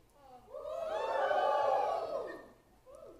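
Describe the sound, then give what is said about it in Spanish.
An audience shouts together, crying out that they are tired of disorder, in one loud, swelling roar that builds over a second, holds, then fades, followed by a brief trailing voice. “Entonces yo voy a oír un grito de alguien que está cansado del desorden.”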